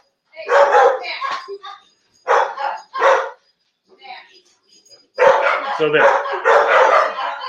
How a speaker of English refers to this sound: You well, the dogs are all going nuts in the other room.